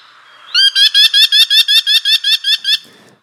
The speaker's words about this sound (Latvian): Vai zini, kas tas ir? Šādi dzied purva piekūns.